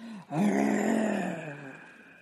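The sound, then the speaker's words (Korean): A human voice, telling a story, imitates a tiger crying and shouting, letting out a short wailing cry that swells into a long, strained roar-like groan, loud, then slowly fading. “하고 울고 있었다 소리를 질렀죠.”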